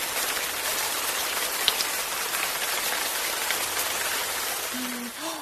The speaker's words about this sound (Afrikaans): Nee, nou weet, die reën sous neer daar buite, mos jy? Alles is nat van die water.